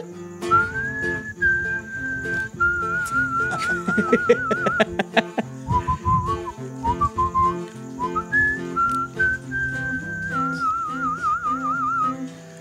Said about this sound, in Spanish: Chiflaba para llegarle.